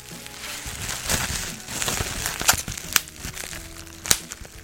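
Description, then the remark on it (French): Bubble wrap being handled and wrapped around small objects to protect them before shipping a parcel, a steady plastic crinkling and rustling with several sharper crackles and snaps scattered throughout, no voices. “il faut protéger l'objet avec avec quoi Avec du papier bulle”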